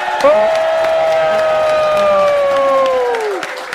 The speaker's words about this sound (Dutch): Ik zal zeggen, geef haar een oorverdovend, luid, enthousiast, roepend applaus!